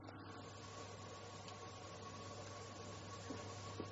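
Continuous electromagnetic white-noise static hisses from a handheld device used for recording psychophonies, steady and unbroken for the whole stretch, with a low electrical hum underneath and a couple of tiny clicks near the end. No one speaks.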